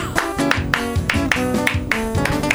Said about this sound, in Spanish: Tengo las manos rojas ya, pero puedo resistir más. Manden aplausos grabados si quieren de paso